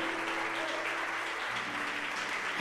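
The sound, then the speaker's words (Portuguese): An audience claps to praise the Lord at an evening worship gathering, a dense, continuous patter of many hands at even loudness with no voices rising above it, and a faint low tone held beneath. “Aplaude ao Senhor, você é um Josué de Deus nessa noite.”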